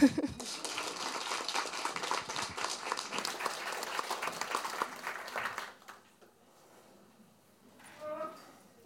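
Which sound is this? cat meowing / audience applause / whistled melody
audience applause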